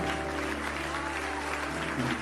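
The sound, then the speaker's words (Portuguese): An audience applauds in praise of God: a dense, continuous wash of many hands clapping at an even level, with a faint sustained tone and murmur underneath throughout the short burst. “Vamos aplaudir mais ao nosso Deus, vamos.”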